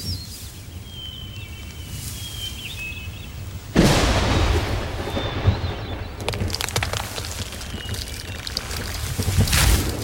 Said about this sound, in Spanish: el rayo. Qué bueno que le pegó ese árbol, si no estarías bien frita. Ya vámonos, no vaya a caer otro.